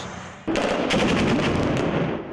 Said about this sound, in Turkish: Havadan, havadan ateşler var.